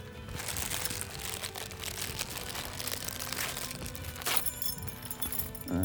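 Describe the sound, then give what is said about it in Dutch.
Continuous crinkling and rustling of paper as a gift package is unwrapped, with tearing and crunching sounds throughout and no speech. “Oké, wat is dit? Een cadeautje. Doe maar op.”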